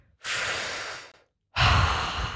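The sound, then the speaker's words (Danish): People take a long, deep inhale together, a brief pause, then a loud, heavy exhale like a sigh of release, with no talking. “Trække nogle ja. dybe vejrtrækninger sammen.”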